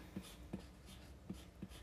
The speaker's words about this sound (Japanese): 今もう紙に創意工夫って書いてます。創意工夫。